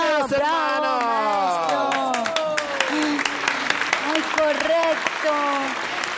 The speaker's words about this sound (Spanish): de verdad, ese aplauso fuerte para el maestro. Otra vez aplauso.